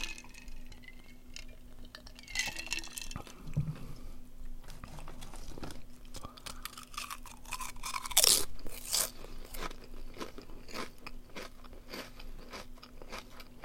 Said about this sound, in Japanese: なんか前回の配信聞いたら顔30センチぐらい離してる状態で録音してても、結構この咀嚼音とか入ってたんだよね。そんなに拾うんだなと思って。